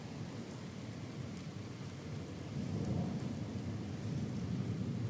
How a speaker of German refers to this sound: Und es blitzt schon wieder. Nur mal damit ihr mal so mitkriegt, wie oft es hier so blitzt. Es blitzt. Es blitzt. Es blitzt. Es blitzt.